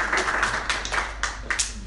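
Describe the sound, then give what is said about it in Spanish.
A brief round of applause for someone's birthday, many hands clapping in a dense, crackling patter with a few sharper bursts standing out, steady in loudness for about two seconds with no voices. “Un aplauso para él.”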